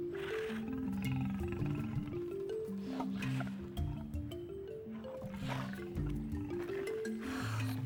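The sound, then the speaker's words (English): A sick lion growls low and rumbling almost without pause for several seconds, fairly loud, its deep throaty tones rising and falling with no voices. “I've been watching this particular lion for a few days now, trying to make sure he didn't harm anyone.”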